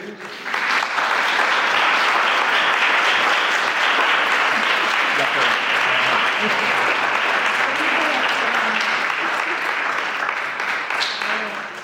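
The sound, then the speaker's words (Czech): A church audience breaks into warm, light applause honouring the leaders of the children's Sunday school for 30 years of service. Many hands clap in a dense, steady patter that holds at an even level for about eleven seconds before tapering slightly at the end. “A já si toho jako velmi jako cením a myslím, že to je hodné i našeho takového eh, lehkého, decentního potlesku.”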